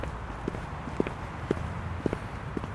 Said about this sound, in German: Der Kulturhistoriker Norbert Fischer geht mit flotten Schritten durch den Ohlsdorfer Friedhof in Hamburg.